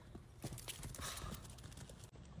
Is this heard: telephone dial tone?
no